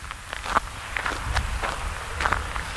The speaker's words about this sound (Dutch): Hij neemt me meteen mee naar buiten. We lopen met grote passen naar de overkant van de weg, naar een akker vol met bloemkolen.